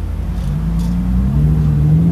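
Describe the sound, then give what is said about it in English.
A sports car engine revs at a stoplight, a loud, deep rumble whose pitch climbs steadily over two seconds, with no voices over it. “These two cars, a lady in the Lamborghini car totally knows the guy who's in this other blue car. They're at a stoplight.”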